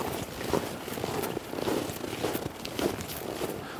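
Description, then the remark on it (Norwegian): Footsteps crunch through snow as people walk across a farmyard toward the back of a wagon shed, six or seven even steps at an unhurried walking pace, each one a gritty, crackling squeak, with no voices. “Og så går han i motsatt retning, og vi følger ham over tunet til baksida av et vognskjul, der eh, fluktbilen blei parkert.”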